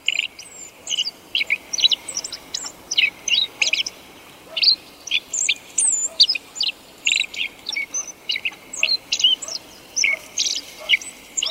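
Short, high-pitched contact calls of a black-faced bunting, the kind used among companions in autumn and winter, repeat in quick bursts, mixed with brief snatches of its song, clear against a quiet outdoor background with no talking.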